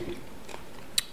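A crunchy bite into edible insects: soft, faint chewing noises, then one sharp, bright crackling crunch near the end. No one speaks.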